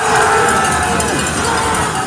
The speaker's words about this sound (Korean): 영하 15도를 밑도는 한파가 들이닥친 평창 슬라이딩 센터. 강추위를 뚫고 찾아온 관중들의 함성과 함께 소재환이 힘차게 출발합니다.